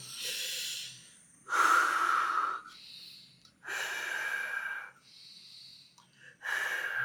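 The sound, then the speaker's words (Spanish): A person imitates forceful exercise breathing: a rhythmic series of loud, airy breaths, alternating stronger rasping exhales with softer intakes, roughly five bursts with no speech. “yo marco mucho la respiración y me concentro para respirar bien, porque si vos tenés que inhalar y en el momento que te inhalar, exhalaste, como que el cuerpo dice que acaba de pasar.”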